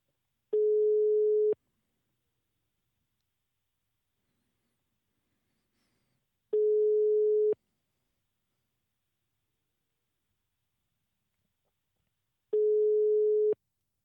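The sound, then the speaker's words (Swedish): A telephone ringing tone on a call: three steady, mid-pitched one-second beeps, evenly spaced about six seconds apart with silence in between and no one talking. “Spännande om det är någon som svarar.”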